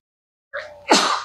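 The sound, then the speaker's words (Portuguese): A single loud sneeze: a short voiced intake builds up, then bursts into a sharp, breathy explosion. No talking accompanies it, and quiet comes just before. “Saúde.”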